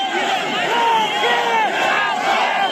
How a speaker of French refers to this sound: Oui, on a entendu dès le, dès le premier jour, on a entendu la foule scander euh, Va-t'en le vieux